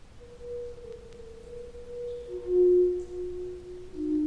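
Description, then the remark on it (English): A recording of Leland Sprinkle playing the Great Stalactite Pipe Organ in the Luray Caverns: soft, pure organ-like tones from stalactites ring out in the cave, a few long sustained notes overlapping and shifting in pitch, with a brighter note swelling near the middle and end. “And what you're hearing now is a recording of Leland himself playing the stalactite pipe organ in the Luray Caverns.”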